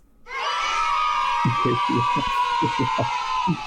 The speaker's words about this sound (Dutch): Oh, het publiek wordt wild.